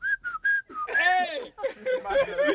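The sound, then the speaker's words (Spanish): Four short, steady whistled notes in quick succession, imitating a sound, are followed right away by a person speaking loudly and animatedly. “Si chifla el culo, está bien.”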